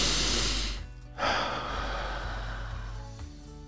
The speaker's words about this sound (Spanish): Inhalar, exhalar, suave.